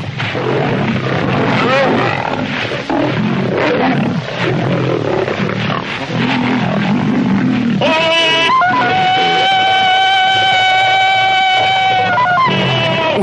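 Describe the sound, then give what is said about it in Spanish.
A lion charges and pounces on a man, roaring and snarling loudly as they grapple and roll on the ground in a continuous ferocious struggle for about eight seconds, then a long sustained tonal cry rings out over the fading growls. “El león corre hacia él. Se abalanza sobre Tarzán que lo agarra entre sus brazos y ruedan por el suelo.”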